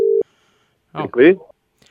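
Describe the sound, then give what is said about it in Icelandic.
A single short burst of steady mid-pitched telephone tone sounds at the start as a call is placed to a man, followed by a pause and then a brief stretch of someone talking. “ringjum aðeins í einn mann nú”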